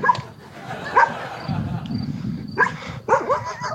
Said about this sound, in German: Schau, die Hunde.